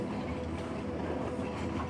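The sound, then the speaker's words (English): A train rolls steadily along the rails, a continuous loud rumble with a faint rhythmic clatter of wheels underneath and no voices. “Meadows of warm golden colors are passing by the train, and every now and then an old giant oak tree passes you by, standing proudly in the sprawling fields of gold.”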